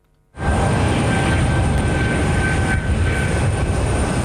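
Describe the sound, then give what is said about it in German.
A loud, steady roar of an aircraft engine, just landed at Zurich Airport with ground staff waiting on the ramp, starts abruptly and holds constant, with a high whining tone and a broad rumbling noise underneath, no voices. “Das Flugzeug ist gelandet und drei Personen warten schon auf den sogenannten Ramp.”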